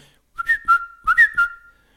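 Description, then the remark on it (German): A person whistles a short, lively tune of two quick bursts, each with rising and falling pitched notes, imitating a particular whistle, clear with no talking. “Und dann macht sie so einen Huren, einen Pfiff, so einen speziell so.”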